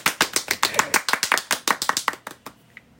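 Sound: clapping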